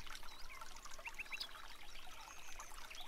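Soft, steady rain hisses continuously in the background, a quiet even wash of droplets with a few faint bird chirps briefly breaking through.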